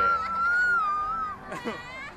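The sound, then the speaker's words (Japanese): Children shriek excitedly on a pendulum-style ride swinging forward and backward at a gentle speed: one long, high-pitched squeal holds for over a second, then a couple of sharper, noisier screams burst out over a busy, rumbling background. “子供たちは大騒ぎですけれども”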